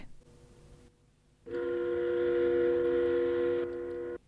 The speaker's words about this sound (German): Schlag 7 Uhr heute Morgen läutet die Sirene der Rostocker Neptunwerft die zweite Welle der Warnstreiks der IG Metall in den östlichen Tarifgebieten ein, die sich gegen die Kündigung der Tarifverträge durch die Kapitalisten wenden.